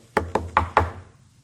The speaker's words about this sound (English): You hear a knock at your door.